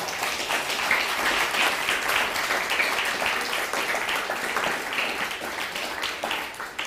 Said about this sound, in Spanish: Bueno, pues dale un fuerte aplauso al bendito sea.